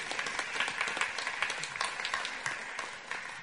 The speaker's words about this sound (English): Should we just give him a little clap because he has been very good.